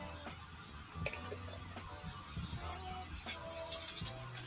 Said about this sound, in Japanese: パチパチ音がしています。